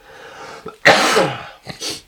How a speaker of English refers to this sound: don't have another coughing fit.